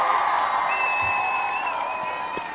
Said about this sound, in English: I'm just gonna give you a round of applause.